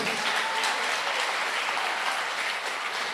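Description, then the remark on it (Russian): A church audience applauds the Lord steadily, a dense, even wash of many hands clapping at once that holds at a fairly loud level for the whole stretch without fading. “Дай огромные аплодисменты Господь.”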